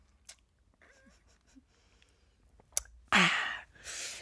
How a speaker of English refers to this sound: Now, take some sip of water for this one.